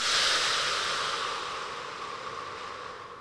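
human body sound, strong

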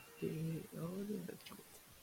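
signal or alarm, alarm going off

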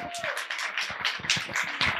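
crowd, audience applause

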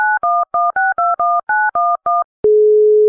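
signal or alarm, telephone number being dialed

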